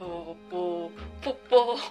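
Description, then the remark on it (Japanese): A person imitates the cooing of an ordinary town pigeon, as heard in the morning, making a short rhythmic run of low, drawn-out hums and throaty notes, fairly soft. “朝聞こえてくる、あの鳩の鳴き声。”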